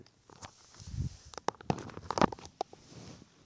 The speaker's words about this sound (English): Setting my phone down and walking away from it, testing sound.